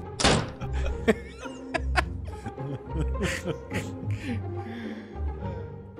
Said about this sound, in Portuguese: Som de porta batendo.